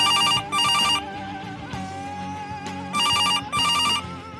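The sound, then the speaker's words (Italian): A telephone rings in four bursts arranged as two pairs of rapid electronic trills, with short gaps between, fairly loud over a quiet background. “Il telefono non la pianta.”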